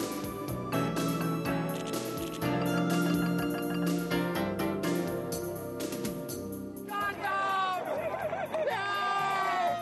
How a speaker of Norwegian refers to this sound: USA, USA, USA, ropes det idet spesialstyrkene passerer.